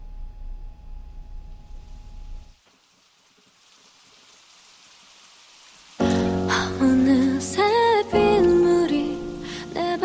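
Steady, soft rain hiss with a low rumble at first, thinning to a faint patter before a song with instruments and singing comes in over it.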